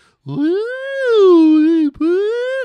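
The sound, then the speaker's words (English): A child's voice wails a lily pad song in a long, gliding tone that rises and falls like a slide whistle, breaking briefly before sliding on again, loud. “You sound like one of those stupid slide whistles.”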